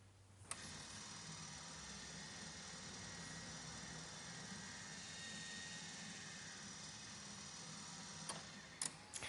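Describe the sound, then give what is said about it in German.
A steady mechanical whir of motors turning a teapot suspended in a monitor about two axes as keyboard keys are pressed, with a few sharp relay clicks, one near the start and a small cluster near the end. The sound is fairly quiet, and no one speaks. “Man hört also im Hintergrund auch jetzt gerade die Motoren und die Relais klackern, wenn man da auf die Tasten drauf drückt.”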